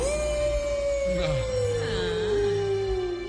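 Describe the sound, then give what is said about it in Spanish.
Several wolves howl together on a hill in one long, sustained, slowly falling chorus, with shorter rising and falling howls weaving in over the steady main tone. The howls are loud and clear, with no talking. “Los lobos aullaban en la colina.”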